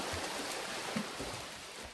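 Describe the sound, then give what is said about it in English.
Steady, dense splashing and churning water fills the whole stretch as triathletes swim together in a triathlon, 142 hands thrashing through the water, with no voices. “142 hands swimming a triathlon,”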